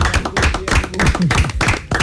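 An audience applauds loudly and steadily, a dense rush of many hands clapping at once, with faint voices or cheers mixed into the noise.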